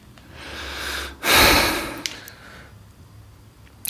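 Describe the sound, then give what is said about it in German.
Heavy, snorting breaths: a long noisy exhale, then a louder burst of rushing air, followed by softer breathing and a few small clicks. “Schnaufen und Mausrollen geht gar mhm. nicht.”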